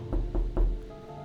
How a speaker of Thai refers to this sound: ในระหว่างที่กำลังนอนนอนอยู่พลิกตัวไปมา ผมได้ยินเสียงเคาะประตูห้องนอน